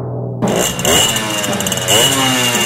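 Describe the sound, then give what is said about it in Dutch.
A small two-stroke Kreidler moped engine buzzes loudly and continuously, its raspy pitch rising and falling with a few quick revs. No voices are heard. “Dit is een Kleidler, denk ik, of niet?”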